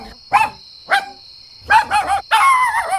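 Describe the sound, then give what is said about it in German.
A dog barks loudly at a rat slipping into a baby's room: two sharp single barks, then a quick cluster, ending in a longer, drawn-out yelping bark, with a steady high-pitched tone in the background. “sieht Susi eine Ratte, die ins Zimmer vom Baby schlüpft und ballt so laut wie sie kann”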